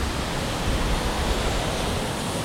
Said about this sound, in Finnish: aallot on korkeita, ylimetrisiä. Ne on erittäin harvinaisia tässä Päijänteellä.